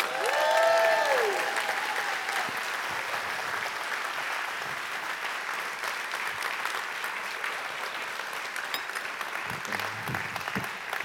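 Sustained applause from an audience, a dense steady patter of many hands clapping for about eleven seconds, with a brief rising whistle or cheer at the start.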